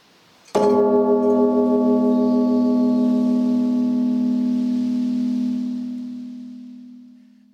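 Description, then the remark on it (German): A single deep, loud strike of a large church bell, its rich low hum sustaining with a slow pulsing beat and fading gradually over several seconds, with no voices. “Diese Glocke heisst Trinitas. Hören wir doch einmal, wie die tönt.”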